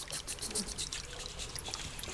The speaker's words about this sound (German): Die ganze Zeit dieser Klang der Wassertropfen. Ein tolles Geräusch. Man hörte, dass alles in Bewegung war. So klingt für mich der Frühling.